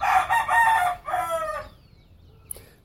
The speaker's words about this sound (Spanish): Y cuando yo escucho cantar las aves, los gallos, quisiera cantar también yo con ellos, pero no sé, no sé qué, cantar.